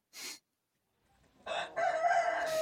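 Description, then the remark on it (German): A rooster crowing sound effect: a loud, drawn-out tonal cock-a-doodle-doo rising from a brief scratchy onset, preceded by a short burst of noise and a moment of silence. “Also …, mach nochmal den Hahn bitte.”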